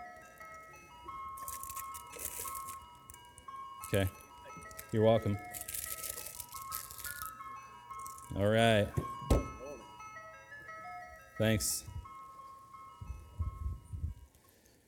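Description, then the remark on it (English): An ice cream truck's tinkling music jingle plays steadily throughout, with brief exchanges of talk and a few clunks and rustles. “I lived on a long street, and from my backyard, I could hear the music of the ice cream truck from so far away.”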